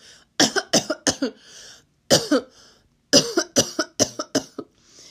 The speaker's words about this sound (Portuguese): A pobre cigarra, toda tremendo, respondeu depois de um acesso de tosse.